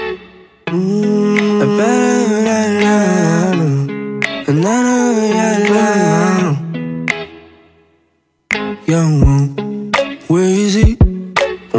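A French pop song with a hip-hop feel, a collaboration with hip-hop artists: a processed, autotune-like lead vocal glides over a steady backing track, loud and close, pausing briefly before the singing resumes.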